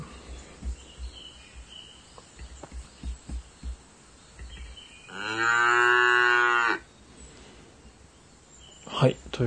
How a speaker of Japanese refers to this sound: ということでね、牛の声を鳴らさせていただいております。まあ、音という名前でやってますので、ちょっと巻き場の朝感を出してやっております。もしちょっとうるさかったら言ってください。